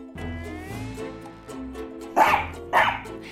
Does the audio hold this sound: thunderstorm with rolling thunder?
no